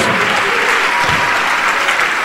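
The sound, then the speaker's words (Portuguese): A church audience claps steadily in praise of Jesus, a dense, continuous wash of many hands applauding at an even, loud level throughout, with no voices standing out. “Vamos aplaudir mais ao nosso único, suficiente, exclusivo e eterno Salvador.”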